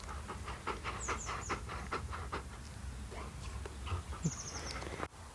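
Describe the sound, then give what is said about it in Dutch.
Moon, a husky mix dog, pants rapidly and steadily on a warm day during a walk on the small heath behind the Sterrenboslaan in Huizen, quick rhythmic breaths repeating throughout with a low outdoor rumble underneath and a few faint chirps. “Moon is een mix en onder andere heeft hij husky in zijn bloed zitten. En die houden niet van warmte, dus dit is altijd een beetje een uitdaging voor Moon, zoals je wel kunt horen.”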